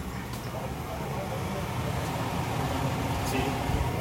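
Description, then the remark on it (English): A fire whooshes steadily in the background, a continuous low, breathy roar that holds an even level without pauses or distinct crackles. “uh, we got the fire whooshing in the background.”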